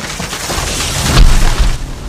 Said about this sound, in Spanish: los majestuosos árboles del bosque por el cual pasaba el río se movían violentamente hasta caer de forma estruendosa al suelo